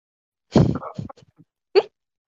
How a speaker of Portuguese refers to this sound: Ah, até tossi aqui, só de falar de coronavírus, tô, tô me lembrando aqui.